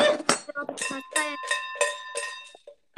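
A leftover coin rattles and clinks inside a container, sharp metallic knocks followed by a bright, lingering ringing tone that fades out over a couple of seconds.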